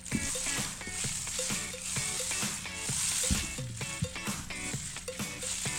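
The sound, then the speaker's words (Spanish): A rain stick being shaken to cut negative energy, producing a steady, dense hiss of tiny pellets trickling and rattling for several seconds, with soft tonal music sounding underneath. “Ok, otra cosa que es importante con el palo de lluvia, puedo cortar energía negativa.”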